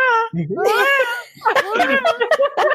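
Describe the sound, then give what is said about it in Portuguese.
A person imitates an eagle's cry with shrill, warbling, high-pitched screeches, loud, followed by a series of choppy vocal bursts. “Faz o, o grito uh, da águia”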